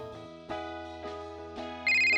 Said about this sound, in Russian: Солнце совсем зашло, и третий звонок. Абонент не определился. Выжидаю, беру трубку.